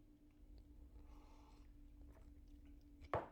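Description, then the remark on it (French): Someone takes a quiet sip of coffee, with soft mouth sounds and a short, sharper slurp near the end. A low hum sits underneath, and no one speaks. “Laissez-moi juste prendre une petite gorgée de café.”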